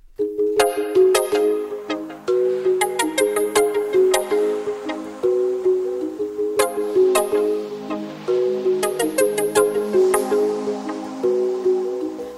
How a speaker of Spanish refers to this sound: Vamos a ir con música.